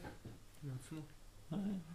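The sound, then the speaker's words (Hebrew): A man's voice imitates a dog barking, giving a few short, voiced "woof"-like bursts in a row, fairly loud against a quiet background. “הב, הב.”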